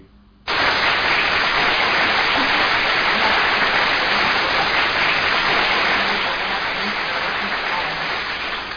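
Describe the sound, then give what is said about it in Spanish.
A burst of steady applause starts abruptly and carries on at full strength for several seconds, a dense crowd of clapping hands that fades only slightly toward the end. “Pues Paloma, que nos estás escuchando, un aplauso para ti.”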